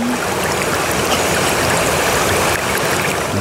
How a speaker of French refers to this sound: Ouais, c'est l'eau qui coule. Ah. Ça me fait penser à l'eau d'érable.